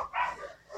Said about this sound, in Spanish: Pinches perros. Pues, está abierta tu puerta. Y la ventana. Una disculpa por los perros que se están escuchando, pero es que siempre me los tiran.